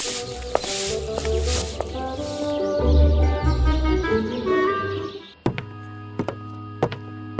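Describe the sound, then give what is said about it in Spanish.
Hard knocking on a wooden confessional, five or so sharp raps in an uneven rhythm, loud, coming right after a dense, humming background suddenly drops away. “Si va para allá, no, nomás tóquele fuerte porque se tuvo unas pastillas, oiga, que para la presión.”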